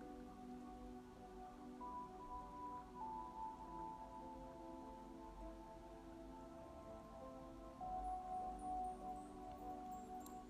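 A steady, hissing wash of sea waves on an empty beach rolls on without pause, with a slight swell near the end, while soft sustained tones hum faintly underneath. No one speaks.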